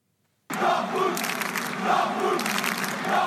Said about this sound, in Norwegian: Monaco-supporterne reiste seg og hyllet motstanderlaget Borussia Dortmund etter at tre eksplosjoner rammet spillebussen før gårsdagens mesterligakvartfinale.